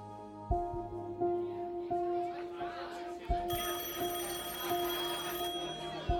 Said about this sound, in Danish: Telefonen ringer på værtshuset. Restauratøren taler ned i røret, uden nogen andre kan høre, hvad der bliver sagt.